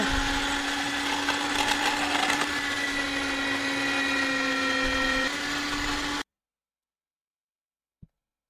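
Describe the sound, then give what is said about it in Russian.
An electric meat grinder grates hard parmesan with a steady, loud motor whine and gritty grinding that runs about six seconds, cuts off abruptly, then a single faint click follows in silence. “То есть пармезан в этой мясорубке.”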